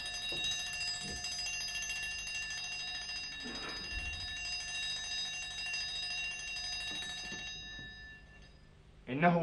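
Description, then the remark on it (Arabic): An alarm clock bell rings continuously for about eight seconds, a bright, steady metallic jangle that cuts off near the end, followed by a brief louder clatter. “إذا دق جرس المنبه فأنا قد تركتك”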